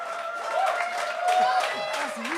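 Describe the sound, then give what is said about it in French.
Sustained applause from an audience, a dense steady patter of clapping mixed with cheering voices and a few shrill whistles rising over the crowd. “On applaudit jusqu'à temps qu'il parle dans le micro, s'il vous plaît.”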